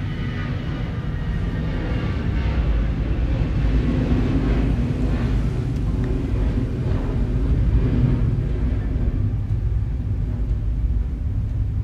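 A deep, steady engine rumble of an airplane passing overhead, loud and continuous with a slight swell in the middle, heard alone without any talking.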